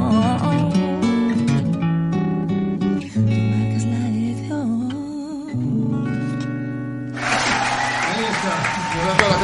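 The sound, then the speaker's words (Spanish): Music with a sustained singing voice plays throughout, and over the last couple of seconds a burst of steady, dense clapping swells up alongside it. “está aplaudiendo, ¿eh?”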